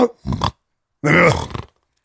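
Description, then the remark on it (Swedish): A person imitates a bulldog's snoring breath with two throaty, snorting grunts: a short one, then a longer, louder, rumbling voiced snore, with no talk around them. “Men det var en sån där bulldog-andning. Han snarkade.”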